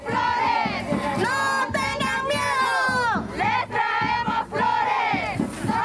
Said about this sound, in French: Ce que vous entendez, c'est le défilé des militantes à San Salvador mardi.